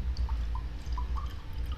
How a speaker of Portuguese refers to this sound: Bebendo a água mineral dessa marca aqui, que a gente não vai falar.